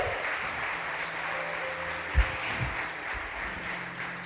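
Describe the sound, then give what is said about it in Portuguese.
Congregation applause at a church service, clapping for Jesus Christ: dense, steady clapping from many hands fills the whole stretch at an even loudness, with a low sustained hum underneath and one brief thump midway. “Aplauda bem forte a Ele, aplauda a Jesus Cristo, aleluia!”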